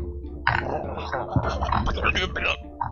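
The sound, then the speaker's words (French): A voice imitates a bubbly, gurgling snore: a wet, rattling rasp with irregular popping bursts that runs for a couple of seconds. “Une de, espèce de ronflement avec des bulles, puis genre c'est comme...”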